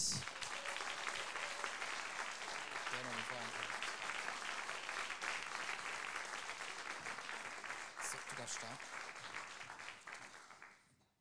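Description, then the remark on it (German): A crowd applauds the Lord Mayor (OB) Richard Arnold as guests are welcomed, clapping steadily for about ten seconds, a dense, even patter of many hands that holds its level before tapering off at the end, with brief voices and a whistle-like tone mixed in. “Und einen großen Applaus für unseren OB Richard Arnold.”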